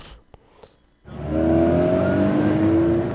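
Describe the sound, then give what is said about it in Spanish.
After a second of near-quiet with a couple of faint clicks, a car engine suddenly roars in loud, revving upward steadily and holding to the end. “El tráfico a esta hora.”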